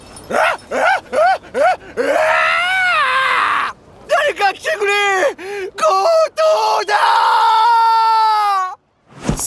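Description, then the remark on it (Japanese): A jewelry shop manager, running out of the shop after a robber fled with a bag, shouts in alarm, loud: a quick run of short, rising-and-falling yelps, then longer strained, wavering cries that stop abruptly near the end. “たぬき店長は突然のことにあっけを取られましたがえすぐに我に返るとお店から駆け出して叫びました”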